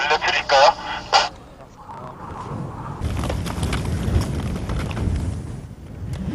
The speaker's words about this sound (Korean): 아, 지금 바람의 세기는 어느 정도인가 이상? 어떻게 말씀드려야 될지 잘 모르겠습니다. 바람 소리를 한번